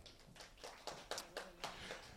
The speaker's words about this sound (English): Give him a round of applause.